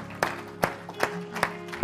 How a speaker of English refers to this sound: Everyone said amen. Give him another hand clap before you're seated. Hallelujah.